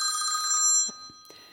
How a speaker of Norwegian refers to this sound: Der ringer hun.